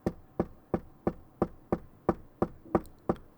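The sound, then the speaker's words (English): About ten dull, evenly spaced knocks in a steady, plodding rhythm, fairly loud with no talking, someone imitating a slow, persistent, irregular knock on a door that keeps going, like a really slow woodpecker. “And then I just hear this knock and it keeps going.”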